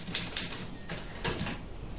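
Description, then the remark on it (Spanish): Rapid typewriter typing inside a wooden house in the countryside by day, a steady run of sharp mechanical key strikes with a few heavier clacks, fairly quiet, with no voices. “se sienta frente a una máquina de escribir.”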